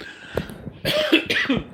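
A person coughs: a short catch, then two harsh, raspy, loud bursts in quick succession, unaccompanied by speech.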